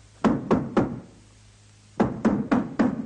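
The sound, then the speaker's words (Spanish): Knocking on a door: three firm, evenly spaced raps, a short silence, then four more in the same steady rhythm. The blows are dull and solid, with no voices. “Miran temerosos a la puerta.”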